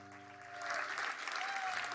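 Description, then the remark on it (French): An audience applauds God in worship, a dense crackle of many hands clapping that swells after a quiet start and holds steady, with a sustained musical tone underneath. “Est-ce qu'on peut applaudir ce Dieu extraordinaire”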